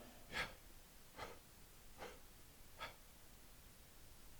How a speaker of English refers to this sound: just the breath. Isn't it amazing that God allowed you to speak His name just with breathing? You don't even need your tongue.